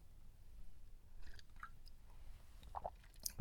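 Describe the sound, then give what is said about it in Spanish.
Soft sipping of coffee: a few quiet slurps and a swallow over a low hum, with a small clunk at the very end, and no talking. “Pausa para trago de café.”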